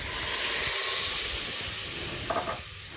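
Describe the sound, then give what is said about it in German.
A steady, broad hiss and sizzle as a small splash of water is poured into a hot pot to loosen the browned bacon residue while cooking a stew, loudest early then easing off, with a couple of brief clinks near the end and no talking. “Jetzt gieße ich einmal kurz mal mit einem Schlückchen Wasser an, damit sich der Satz vom, von dem Speck bisschen anlöst”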